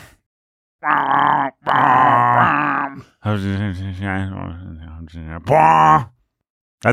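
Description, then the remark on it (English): A voice imitates booming brass from the soundtrack of the film Tenet: four loud, droning vocal blasts, each held for a second or more with brief gaps between them, resonant, with no other speech. “basically the whole soundtrack of Tenet. It's almost the dialogue track of Tenet.”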